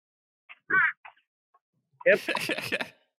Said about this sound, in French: Ah, c'est un corbeau. Ah oui, ça ressemblait à un corbeau. Ah, désolé, le corbeau. Euh. il est sur le mât, donc il va continuer.